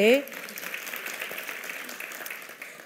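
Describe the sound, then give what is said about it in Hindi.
A crowd applauds in a steady, dense patter of many hands clapping, lasting almost three seconds at an even, moderate level after a brief voice at the very start. “तुम क्यों तालियां बजा रहे हो तुम तो थे भी नहीं वहां”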